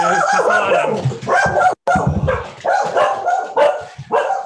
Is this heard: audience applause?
no